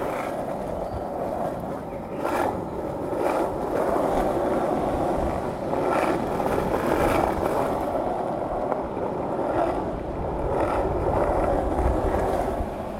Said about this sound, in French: Le skate, il a un bruit particulier des roues qui, qui roule sur le, sur le bitume, tu l'entends, tu le reconnais. C'est vraiment un bruit particulier.